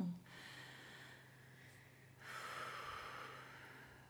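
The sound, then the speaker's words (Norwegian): A single slow, deep breath: a long airy inhale, a short pause, then an even longer, fuller exhale, with no talking around it. “Hvis du er litt stressa, eller det skjer noe uventet, eller hva som helst Bare et dypt pust mm.”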